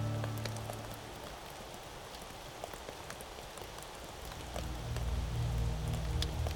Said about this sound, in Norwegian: De seismiske rystelsene inne i Osvald fru Alving og pastor Manders gjør dermed jordskjelv og eksplosjoner overflødige. Regn som drypper, er nok.